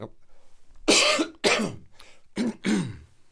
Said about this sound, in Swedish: det där är nästan som att det smittar av sig när man ska harkla sig.